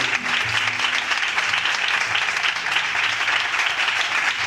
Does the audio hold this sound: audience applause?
yes